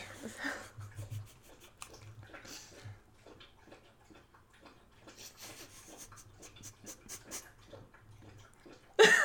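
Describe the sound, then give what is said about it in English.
A dog laps water in a steady run of quick wet slurps and clicks that continues for several seconds, ending with a louder splashy burst. “I kind of want to leave this in, actually, because we're like waiting for her to stop slurping that water, and it's just not.”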